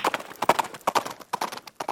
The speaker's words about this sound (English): Horses' hoofs hitting the dirt.